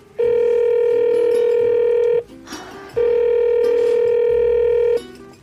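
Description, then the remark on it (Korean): A telephone ringback tone of an outgoing call placed from Namsan: two steady, loud electronic ring bursts about two seconds each, separated by a short pause, with no talking. “그리고 전화를 했죠.”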